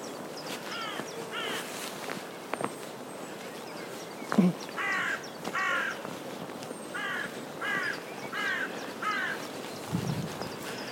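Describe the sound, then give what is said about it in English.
Several crows caw harshly in quick bursts as they fight in the tops of pine trees, their rough calls overlapping and repeating in a rhythmic squabble, with faint rustling and a couple of low thumps beneath. “Spectacular crow dogfight going on in the tops of those pine trees, presumably over something to eat.”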